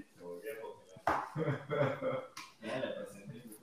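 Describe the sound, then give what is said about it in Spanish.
A person talks over a choppy connection; the voice cuts out abruptly a couple of times, dipping into brief gaps before snapping back at full level. “Se va, regresa. Ese es sabotaje.”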